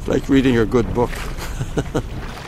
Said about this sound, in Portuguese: Estamos agora no Evigetsfjord, junto ao glaciar Taterat. Num barco de borracha a motor, contornamos os pequenos pedaços de gelo azul, os Bergibits, filhotes de icebergs, enquanto escutamos o gelo a estalar